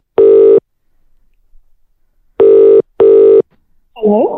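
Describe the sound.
A phone ringback tone purrs loudly on a call to Scotland: one short burst, a pause, then a quick double ring, before a voice briefly answers at the end.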